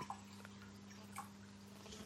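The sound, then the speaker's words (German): A few soft, brief liquid sounds of someone sipping water from a bottle with a red Darth Vader helmet as its cap, between whisky tastings, over a steady low electrical hum, with no talking. “Ich trinke mal einen Schluck Wasser zwischendurch.”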